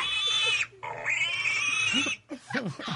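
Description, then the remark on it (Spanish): A person imitates a pig, making loud, high-pitched squealing grunts in two long bursts followed by a few shorter snorting oinks, with no other talking. “Yo, no había hecho de puerco.”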